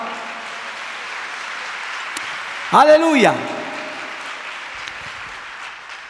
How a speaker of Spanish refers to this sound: ¿Cuánto le dan un aplauso a Dios por eso, amado hermano?